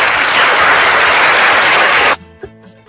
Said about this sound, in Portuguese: Cadê a salva de palmas?